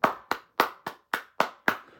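A short burst of applause: seven sharp, crisp hand claps in a steady, even rhythm, each one distinct rather than a blended crowd roar, with no voices.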